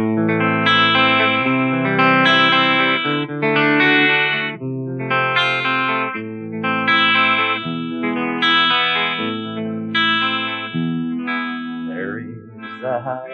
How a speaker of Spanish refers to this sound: en este momento tiene su guitarra ahí colgada y está dándole